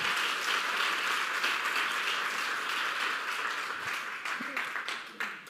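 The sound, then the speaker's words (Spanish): A crowd applauds steadily, a dense wash of many hands clapping at once that holds strong throughout, then thins slightly and turns more uneven near the end. “Ahora sí, dale un fuerte aplauso porque nos estamos pareciendo al papá.”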